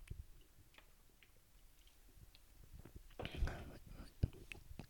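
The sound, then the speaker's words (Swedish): A person takes a quiet sip of water: faint lip and mouth clicks, then a short slurping swallow followed by a single sharp click, all soft against a near-silent background. “Jag ska bara ta en klunk av mitt vatten.”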